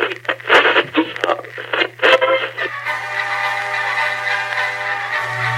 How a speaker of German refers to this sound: Wenn ich denn wieder den Jingle finde.